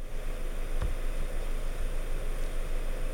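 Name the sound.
generated white noise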